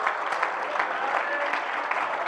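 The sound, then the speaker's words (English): An audience claps hands unto the Lord in worship, a steady, dense wash of applause, loud and continuous with no pauses, and faint voices mixed in underneath. “Come on, clap your hands unto the Lord and worship Him for a minute.”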